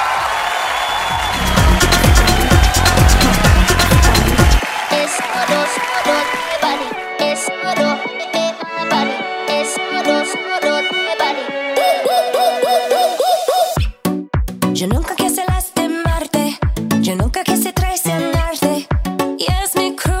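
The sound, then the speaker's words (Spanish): A loud, full-band song with lyrics sung in Spanish and English, shifting through distinct sections before settling into a punchy, evenly pulsing beat toward the end. “Ya, esta versión es en Spanglish, porque tiene parte de la letra en español y parte de la letra en inglés.”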